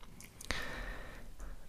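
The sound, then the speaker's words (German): Wet chewing with a sharp lip smack near the start, followed by soft, squishy mouth sounds of someone eating, quiet with no talking. “Da konnten mich schon die kleinsten Schmatz- und Essgeräusche von anderen Menschen oder so ein Gluckern in der Heizung absolut auf die Palme treiben.”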